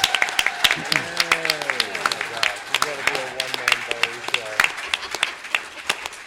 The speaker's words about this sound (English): Big round of applause.